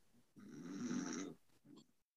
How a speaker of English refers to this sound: were you snoring? Were you sleeping? I was I was I was asleep for a bit.